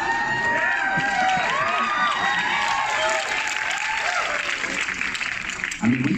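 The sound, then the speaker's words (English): Steady, loud applause from a crowd at an event for the film Barbie, with scattered cheers and shouts on top, a dense wash of clapping that holds for several seconds before tapering near the end. “just let them use all the time with the applause if you want.”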